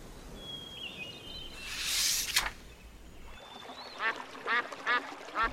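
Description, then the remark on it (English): A brief whooshing splash is followed by a run of four or five nasal duck quacks in quick succession, fairly clear, as a family feeds birds at a park, with no one talking. “Wilma, Wilf, and Dad fed birds.”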